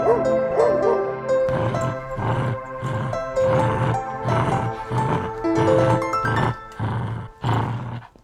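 About ten loud barks from a dog come in a quick, steady rhythm, each a short burst, layered over a sustained tonal hum in the background.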